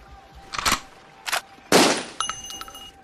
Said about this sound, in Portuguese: Tu dá aquele tiro certeiro, ele entra pela portinhola, você ouve aquele barulho clássico de do, do tiro acertando a carne.